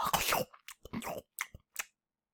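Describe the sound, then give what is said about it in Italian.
Moist chewing noises: a longer biting burst followed by four quick, separate munches that fade into silence, like someone eating a small ring doughnut. “mm, buona questa ciambellina e la volpe chiudendo la bocca in un morso si mangiò la ciambellina”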